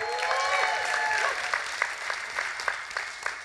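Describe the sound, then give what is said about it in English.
A crowd claps steadily throughout as a shout-out to the Mobile guys, with excited whoops and cheers rising over the applause in the first second or so before the clapping carries on on its own. “let's give a big shout out to the Mobile guys.”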